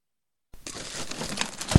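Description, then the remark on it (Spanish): Glass first-aid kit items rattle and clink as they're handled while the kit is being tidied, over a steady rustle, ending with a sharp knock as something is set down. No one speaks. “con cuidado. Esas cosas son de vidrio.”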